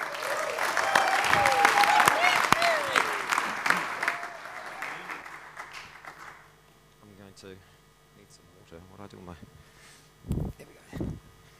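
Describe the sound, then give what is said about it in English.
A crowd breaks into loud, sustained applause for a speaker as he comes up, lasting several seconds, then fades out, leaving a quiet hum and a man starting to speak. “So why don't you give him a big hand as he comes?”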